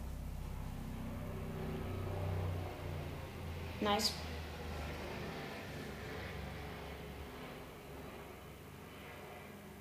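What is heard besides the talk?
helicopter flying overhead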